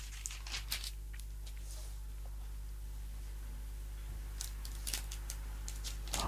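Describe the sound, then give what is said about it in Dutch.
Pages of a book being turned: a few quick, crisp paper rustles early on and another cluster near the end, over a steady low hum with no talking. “Want even omslaan.”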